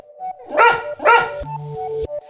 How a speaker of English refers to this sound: so, what's that sound? A sea lion! A sea lion. Sea lions aren't much like lions, they're more like ocean dogs. Sea lions are really playful, and their babies are even called pups.